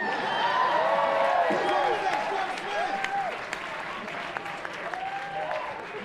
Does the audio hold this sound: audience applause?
yes